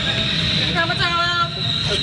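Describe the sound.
A train rolls into a station, a loud continuous low rumble topped by a thin, wavering metallic whine, with indistinct voices murmuring underneath.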